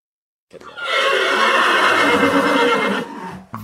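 A horse lets out one loud whinny lasting a few seconds, wavering and shrill before trailing off, followed by a brief soft snort at the end.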